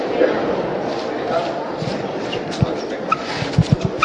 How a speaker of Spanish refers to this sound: Escucháis ese rechinar de las zapatillas con el embaldosado de la parroquia.